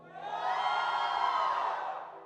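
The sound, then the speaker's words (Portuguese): An audience who attended an event shouts and cheers together when asked to, in a sustained roar lasting about two seconds, swelling quickly, holding steady, then tapering off slightly at the end, with no single voice standing out. “Quem teve lá? Dá um grito da altura do tanto que foi bom.”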